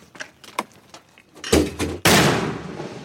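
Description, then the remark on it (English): A few faint clicks and a smaller thump, then a loud, sharp mortar round launched by training Marines blasts out of a metal tube set on a tripod, its broad rushing roar lingering and fading slowly. “Recently, we watched some Marines train, launching them out of metal tubes set on tripods.”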